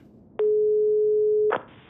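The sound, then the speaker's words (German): A telephone ringing tone, heard while calling the landline of a research institute, sounds once as a steady, fairly loud electronic hum lasting about a second, starting and ending with soft clicks over faint line hiss. “Klein hätte gerne ohne Beisein der Frau Welterlin telefoniert.”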